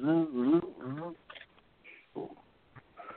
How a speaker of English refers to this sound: will you silence your phone on this? I don't have to hear that? Because that will. I've got a headache a little bit. I don't want to hear that.